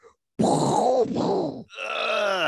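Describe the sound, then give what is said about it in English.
A single voice imitates the first plane hitting a tower on 9/11, as heard from a hotel: a loud, rough, roaring burst, then a brief break and a sustained whining tone, lasting about two seconds. “it's the plane hitting the tower, the first one, while they're in the hotel.”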